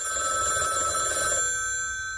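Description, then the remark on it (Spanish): A telephone rings with a steady, bright electronic trill, loud, sounding on its own before trailing off near the end. “¿Cogerías la llamada?”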